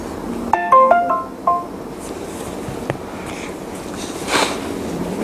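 A phone ringtone plays a short, bright melodic phrase of electronic tones for about a second, then cuts off, leaving quiet room noise with a faint thump and soft rustling afterward.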